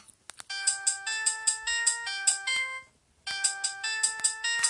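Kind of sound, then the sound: signal or alarm, mobile phone ringtone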